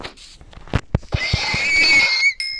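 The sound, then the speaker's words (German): A few dull, evenly spaced thumps of blows, then a loud, strained horse or mule whinny rises and wavers for about a second before cutting off, with a short squeal trailing after. “Ich nochmal zu dem Pferd hier. Oder zum Maultier.”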